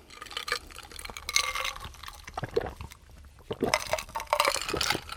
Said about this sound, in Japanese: さあもう今週も私の地元熊本の高橋酒造の米焼酎白竹白で乾杯しましょう乾杯乾杯